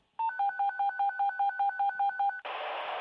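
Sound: telephone call tones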